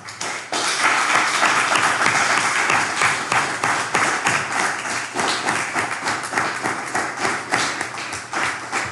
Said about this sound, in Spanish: Vamos a darle un fuerte aplauso al Padre Eterno.